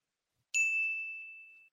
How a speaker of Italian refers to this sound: la newsletter è comunque molto lunga, ha varie parti e quindi mi hanno chiesto di inserire un feedback sonoro che evidenzi che si sta cambiando. Te lo posso far ascoltare, credo che sì. funzioni.